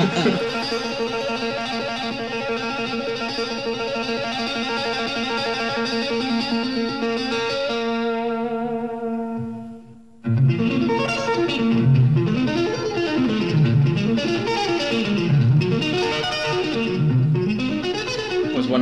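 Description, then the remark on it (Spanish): A guitar duel between Macchio and a guitarist from the 1986 film Crossroads: distorted electric guitars trade loud, sustained lead lines, then after a brief drop to near silence one launches into fast, sweeping runs that climb and fall rhythmically. No one speaks. “acabamos de escuchar ese guerra de guitarras entre Macchio y … de la película Crossroads de 1986, en el cual pues el diablo los pone a competir por el alma de Willy the Blind Dog, que es el que toca la armónica.”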